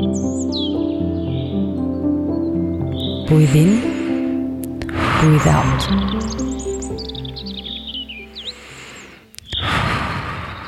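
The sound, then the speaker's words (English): Outdoor woodland ambience in the Wienerwald, a 135,000-hectare forest reaching into western Vienna, with birds chirping and tweeting in scattered high calls, layered over a steady low humming drone, while a calm voice briefly speaks a couple of times. “You are in Wienerwald, a 135,000 hectare big forest pouring into the western part of the 2 million people city.”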